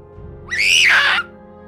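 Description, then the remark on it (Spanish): A single loud, high-pitched, terrified scream from a man in bed rises sharply, holds for under a second and cuts off, standing alone over a faint low background hum. “Grité completamente aterrorizado.”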